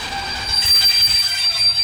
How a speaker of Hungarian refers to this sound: pont ami megérkezett vonat, amiről beszéltünk is, az a vonat Osztrava felől érkezett és Kralópolé közlekedik. Ott egy személyzetváltás után, illetve némi tartózkodás, azt hiszem 25 perc van gyárilag, után közlekedik tovább Havliskovorodon át Prágába.